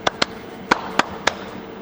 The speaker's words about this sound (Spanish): Está raro el ritmo, chicos. Está como en un ascensor. Es un poco más seco el sonido. La verdad que de, de 20 aplausos, uno uno es digno.